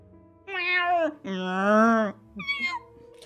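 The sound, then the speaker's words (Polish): Cats meowing: three loud, drawn-out meows in quick succession, the middle one longest, with no talking over them, as a whole crowd of cats comes running together. “Słuchaj, po chwili słyszysz tupot i cała masa kotów się zlatuje.”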